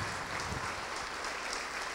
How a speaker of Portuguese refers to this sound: Todos que ergueram as mãos, saiam dos seus lugares. Vem para cá. Vamos aplaudir ao Senhor Jesus por cada vida que está chegando.